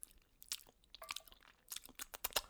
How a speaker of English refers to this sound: I feel like I just have a preposterous amount of saliva in my mouth at all times. It's kind of gross. I'm constantly swallowing.